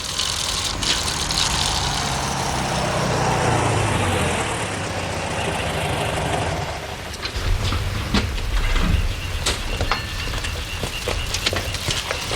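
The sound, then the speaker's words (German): A car engine rumbles steadily as the vehicle drives up as close as possible to the Andrews family house, then slows and settles into a quieter idle with a few sharp clicks and knocks. No one speaks. “Als der Wagen auf das Grundstück der Familie Andrews einbog, fuhren Justus und Peter so nah wie möglich an das Haus heran.”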